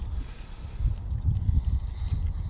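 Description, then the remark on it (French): Water laps against a big boat in cold weather in soft, irregular sloshes over a steady low rumble, fairly quiet, with no voices. “clapotis d'eau.”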